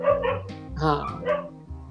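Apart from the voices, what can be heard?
dogs barking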